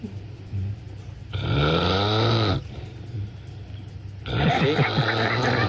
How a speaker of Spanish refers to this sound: ¿Quién es el que está roncando